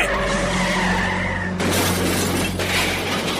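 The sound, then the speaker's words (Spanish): Tires screech in a long, loud skid, then a car slams into something on a street with a crunching crash and shattering glass, followed by a second burst of debris. No one speaks. “Pero cuando un auto choca en la calle,”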